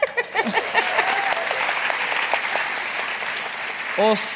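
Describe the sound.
Steady audience applause at an event in Trondheim, Norway, for the editor-in-chief: a dense wash of many hands clapping that fills the whole clip, with brief bits of voices over it near the start and again at the end.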